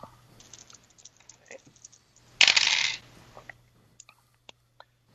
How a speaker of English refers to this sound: Uh, and so, okay, give me a roll, each of you. Okay. Right. Let me uh, go over to my dice.